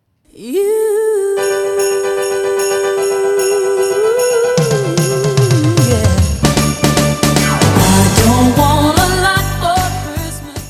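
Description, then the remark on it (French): A festive Christmas song swells from a long sustained note into a bright, busy chorus, with bells ringing in quick rhythmic strikes throughout the second half, loud, with no talking. “Et au niveau du refrain, ça va commencer à, monter très vite avec le, son des cloches.”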